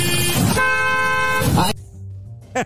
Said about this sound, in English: People behind him are honking.